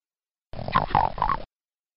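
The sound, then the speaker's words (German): A single guttural video game monster growl, made from a frog's croak, fairly loud, rising into a throaty, croaking snarl that lasts about a second before cutting off abruptly. No one speaks. “Das ist tatsächlich ein Frosch. Wer könnte denn Froschgeräusche gemacht haben?”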